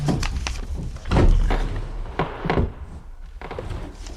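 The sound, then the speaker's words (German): A wooden desk drawer scrapes and thunks as it is pulled open while the desk is being searched, with a cluster of knocks and rattles of contents shifting inside, fairly loud, with no talking. “Als erstes sollten wir dort den Schreibtisch untersuchen. Mal sehen, was sich in den Schubladen befindet.”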